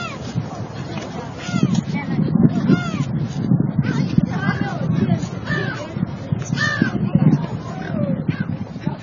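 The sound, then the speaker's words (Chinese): A dense chorus of raucous bird calls at Qinghai Lake, harsh rising-and-falling cries overlapping continuously at steady loudness, with human voices mixed in imitating the birds' calls. “刚才听了一小段青海湖的水，现在听听青海湖的鸟。”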